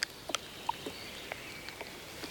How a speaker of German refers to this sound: Hören Sie das? Nein, nicht die Vögel, die Bäume. Das Knacken kommt von ihnen.